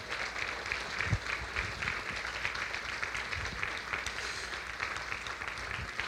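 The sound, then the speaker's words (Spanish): Steady applause from a church audience for members celebrating birthdays, a dense wash of many hands clapping that holds at an even level for several seconds, with no voices over it. “Pido un aplauso fuerte para la vida de estos hermanos.”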